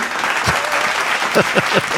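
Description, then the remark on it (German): A burst of canned applause from an applause button, steady dense clapping from a crowd, played as a short sound effect lasting about two seconds at an even volume. “André hat den Applausknopf wohl nicht gefunden.”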